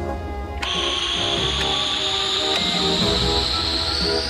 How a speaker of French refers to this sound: C'est parti, Moussaillon. Dépressurisation du SAS.